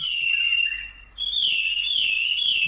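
A high, steady whistle from a homemade pipe made from a tube, imitating birdsong as if conversing with birds, holding one pitch, breaking off briefly, then resuming slightly higher with gentle warbling wavers. No one speaks.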